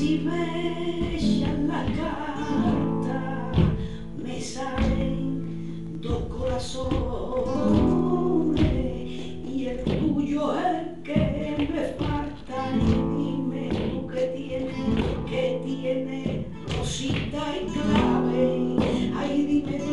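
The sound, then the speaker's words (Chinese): Flamenco music in the Alegrías de Córdoba form plays steadily, with sharp percussive hand claps and strikes punctuating a dense, bright texture of sustained tones at an even, lively loudness throughout. “好，那 Alias de Cordoba 这个曲式它到底长什么样子呢？那现在就让我们先来听听看吧。”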